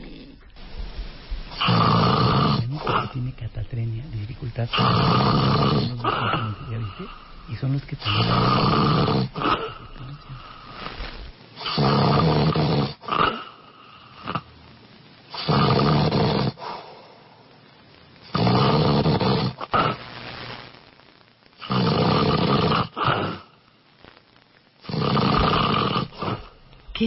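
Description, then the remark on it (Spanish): A man who believes he has a deviated nasal septum snores loudly and repeatedly, each harsh rattling breath lasting a couple of seconds with brief quiet gaps between, about nine snores in a steady rhythm, without any talking. “Vamos a escuchar cómo ronca este hombre que cree que tiene el tabique desviado.”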